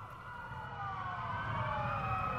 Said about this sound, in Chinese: 就在他开始思考哪里有高层建筑时，远处突然传来了一阵救护车的警笛声。